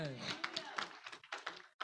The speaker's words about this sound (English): Clap for the Lord Jesus.